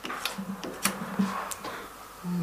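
Wild boar ribs with baked potatoes roasting in an opened, switched-off oven: irregular soft pops and ticks crackle over a low steady hum as juices sizzle and bubble, with a few sharper snaps scattered through.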